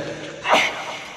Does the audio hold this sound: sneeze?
yes